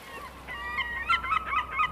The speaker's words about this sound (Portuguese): A gente caminhou na areia por horas e aí eu tropecei em uma concha. De dentro dela saiu uma gaivota.